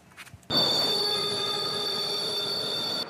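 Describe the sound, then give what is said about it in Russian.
A Moscow metro train, a new space-themed train arriving at the depot, its wheels screeching against the rails in a loud, sustained high-pitched squeal that starts abruptly after a brief quiet moment and holds steady, with no voices. “Космический поезд приземлился в депо.”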